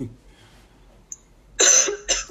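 After a quiet stretch, someone coughs twice: a loud, harsh first cough followed quickly by a shorter second one. No one is talking.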